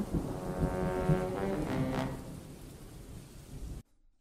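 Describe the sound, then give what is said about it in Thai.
A storm sound effect: deep rumbling thunder and a steady roar of wind with a low, droning tone, loud throughout before cutting off abruptly just before the end. No one speaks. “วันหนึ่ง ได้เกิดพายุพัดให้นางหมาขาวต้องพัดลากออกจากลูกไป ลูกสาวทั้งสองก็โดนลมพัดไปถึงเขตหมู่บ้านนายพราน”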